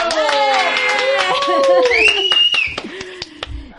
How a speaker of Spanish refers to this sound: Por aquí tenemos que aplaudir todos.